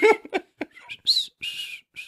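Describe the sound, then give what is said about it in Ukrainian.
A person tries to whistle through their lips, producing a few breathy, sputtering bursts with thin, wavering tones that never settle into a clean note. “Їбать, ти хуйово свистиш.”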